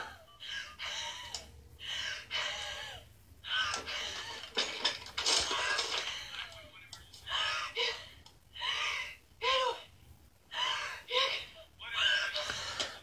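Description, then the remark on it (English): Someone with asthma gasps and wheezes for breath, unable to talk, in a steady run of strained, ragged inhales and exhales, some with a whistling rise in pitch, repeating roughly every second without actual words. “All my asthmatic folks out there, have y'all ever been able to relate? Like where you can't even talk?”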